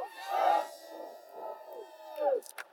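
An audience erupts in loud, high-pitched screams and cheers, a sustained burst of excited shouting that swells, dips, and rises again before tapering off, as mastermind group members in the audience respond to the speaker.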